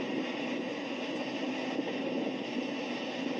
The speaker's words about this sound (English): Finally, the end of the train